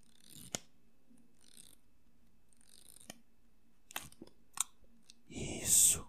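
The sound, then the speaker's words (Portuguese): Crisp taps and clicks on a microphone by a person making an ASMR recording on a live stream, scattered irregularly over quiet background hiss, ending in a louder rustling, scraping burst. No one speaks. “assim que a pessoa fala, a pessoa bate no microfone assim.”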